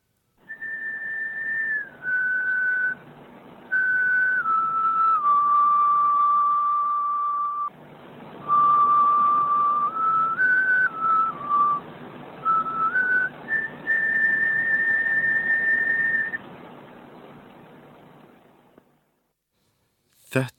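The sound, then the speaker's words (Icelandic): A 9000-year-old flute made from a crane's wing bone, 20 cm long with seven holes, plays a slow, simple melody of sustained, breathy notes stepping up and down in pitch, heard alone over a faint background hiss before fading out. “Þetta var örstuðt hljóðdæmi með 9000 ára gammalli flautu úr vangbeini trönunar.”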